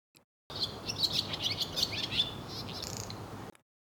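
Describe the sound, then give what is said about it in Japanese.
A short transition sound effect of bright, twittering bird chirps over a soft rustling bed, lasting about three seconds and cutting in and out abruptly, with no talking. “ちょっとカット音を初めて入れてみました。”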